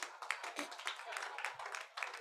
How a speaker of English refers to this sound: Clap for the Lord Jesus.